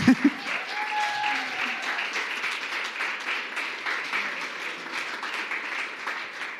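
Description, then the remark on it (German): An audience breaks into steady applause, a dense, sustained wash of many hands clapping at an even level for several seconds, with a couple of sharper claps at the very start. “und ich glaube, so der Applaus, der jetzt auch gleich kommt”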